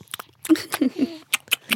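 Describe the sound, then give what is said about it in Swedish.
Wet smacking and chewing sounds from a baby boy mouthing his mother's finger: a quick series of clicks and lip smacks mixed with soft, murmuring vocal noises. “Jag älskar att jag smaskade ah. efter dem. Bara, var det en ekorre eller var det? Nej, det är mammas finger.”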